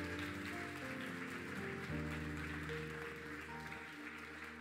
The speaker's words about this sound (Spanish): Vamos, dale un fuerte aplauso al rey.